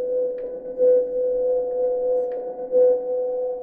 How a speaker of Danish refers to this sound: jeg kan loop den her tone, og så kan jeg ligesom putte en ny tone ovenpå, og skabe harmonier